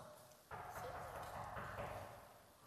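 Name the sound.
knocking on a door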